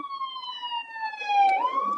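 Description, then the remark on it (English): An ambulance siren wails loudly, heard from inside a car being driven, its steady tone sliding lower before bending back up as it passes, with low road rumble underneath and no talking. “Oh, hey, there's an ambulance coming”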